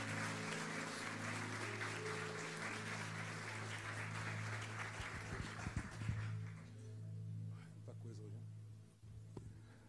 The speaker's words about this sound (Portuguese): Dê um aplauso ao Senhor por eles, viu?